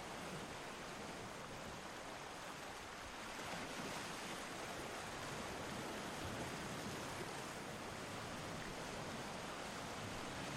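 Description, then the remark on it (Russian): A steady, hissing wash of ocean surf rolls toward the shore without pause, soft, carrying fine sand and many shells, with no clear breaks between waves and no voices. “Понаблюдайте некоторое время за океаном. Его устойчивое, вечное движение всегда стремится к берегу, принося с собой мелкий песок и много ракушек.”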